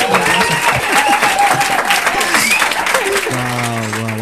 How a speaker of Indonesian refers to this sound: bintang kasih SFX ini kok klep. oh iya iya iya. Tepuk tangan palsu silakan.